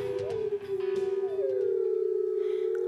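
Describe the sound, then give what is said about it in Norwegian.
A long, sustained wolf howl holds a steady tone and rises slightly at the start, with a second overlapping howl joining in, heard clearly with no talking. “Hadde du gått kveldstur alene i skogen hvis du visste at det var en ulveflokk der?”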